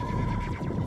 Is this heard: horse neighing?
yes